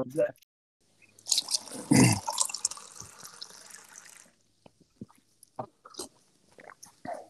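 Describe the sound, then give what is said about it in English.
A tap runs in a steady rushing stream for about three seconds as someone gets a glass of water, then stops, followed by a few faint clicks and soft handling sounds. “I'm just gonna go grab a water because my mouth's getting dry.”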